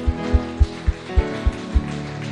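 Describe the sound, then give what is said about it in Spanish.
A church audience applauds God in a dense, steady wash of clapping, backed by music with a regular thumping bass beat and sustained keyboard-like chords. No one speaks. “Le damos un fuerte aplauso a nuestro Dios.”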